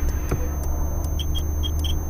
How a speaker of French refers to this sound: Garer la voiture sur le bas-côté. Mettre les warnings. Arrêter la voiture.